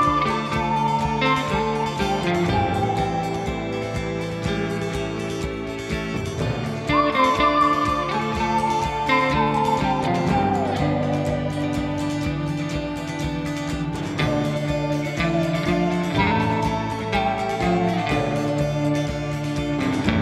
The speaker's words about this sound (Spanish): Ese silbido que se escucha nos anuncia que se viene la última sección del podcast que se llama La buena, la mala y la fea.